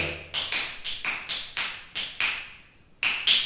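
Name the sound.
finger snapping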